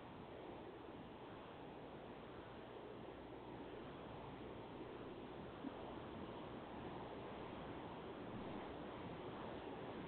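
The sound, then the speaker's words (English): Steady, roaring wind buffets a truck with its windows up, a dense, unbroken rush of noise that stays loud for the whole stretch with no voices. “I still hear it a little. Just the wind Hello? from us up, blown against the truck.”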